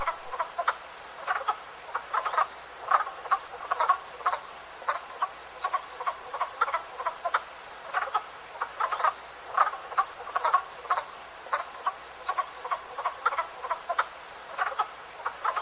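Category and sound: animal, frogs croaking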